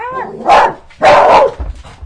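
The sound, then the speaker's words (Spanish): Two loud dog barks ring out about half a second apart, preceded by a brief whine, with a low rumble of movement afterward. “El productor el se perro, está enojando.”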